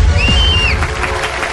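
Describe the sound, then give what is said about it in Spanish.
An audience bursts into applause welcoming Senator Uribe, a dense, steady wash of clapping with a sharp, high whistle rising over it at the start. No one speaks. “Por último, reciban con un fuerte aplauso al favorito de multitudes, al candidato que cuando dice no, es no.”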